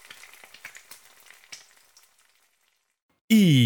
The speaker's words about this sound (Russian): Пока жарится хэш-браун... Пока жарится хэш-браун...